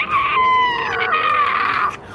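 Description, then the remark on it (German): A giant spider, its upper body in flames, lets out a loud, shrill monstrous scream, held for about two seconds with a piercing, wavering pitch before cutting off abruptly. No talking. “Und dann lichterloh geht das ganze Oberteil der Spinne in Flammen auf und die Spinne lässt einen ähm, herzerschütternden Schrei aus.”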